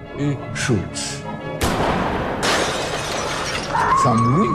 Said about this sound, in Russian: Стекло где-то разбивается.